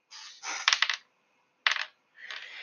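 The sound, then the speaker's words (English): A handful of ten dice rattle and clatter together in a few bursts, with sharp clicking impacts, fairly loud, separated by brief pauses. No one speaks. “So in this pile of dice, I'm going to introduce you to John.”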